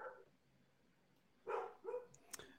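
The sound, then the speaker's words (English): A dog barks twice in quick succession, moderately loud, with a short yip-like sound trailing after; quiet background otherwise. “My dog's barking.”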